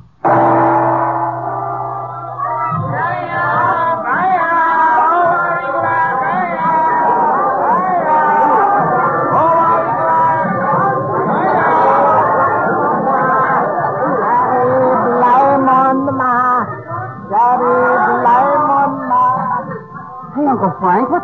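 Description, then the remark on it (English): Dense crowd babble fills a busy narrow street in the city of Alexandria, Egypt, many overlapping voices chattering and calling out, a steady loud hubbub with no single voice standing out. “The present scene is a narrow street in the city of Alexandria.”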